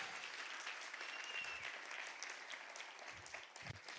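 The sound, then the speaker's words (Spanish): A church audience claps steadily and loudly for Jesus, a dense wash of many hands with no clear rhythm, sustained for a few seconds with a few isolated cheers or whoops rising above it. “Vamos, un aplauso fuerte a Jesús.”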